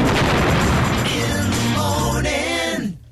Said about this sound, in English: Yeah, that's a good spot for that explosion.